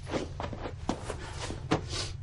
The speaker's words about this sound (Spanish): Churchill cierra la puerta de una sala. Él y Anthony se alejan.